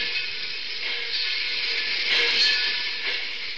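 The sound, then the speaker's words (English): A steady, hissing rumble of a Great Valley Railroad train rolling along railroad tracks at Northbridge, Minnesota, continuous and fairly loud, with faint periodic swells, heard from inside the train's observation car. No one speaks. “Wilbur Norris, first vice president of the Great Valley Railroad, and I were sitting in the observation car of a Great Valley train at Northbridge, Minnesota.”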